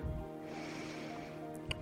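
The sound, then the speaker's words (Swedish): A steady, breathy nasal inhale through the left nostril, the right nostril closed with one hand, in a nadi shodana pranayama breathing exercise, runs for nearly two seconds with a hissy, airy texture, ending in a brief sharper sniff-like burst. No one speaks. “Där vi med ena handen stänger till högra näsborren för att andas in i den vänstra.”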